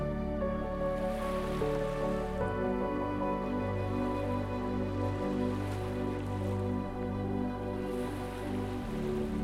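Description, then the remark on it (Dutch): Ocean waves wash steadily onto a beach in a continuous hiss of water, blended with a soft, sustained musical drone; no one speaks. “Luister naar de golven.”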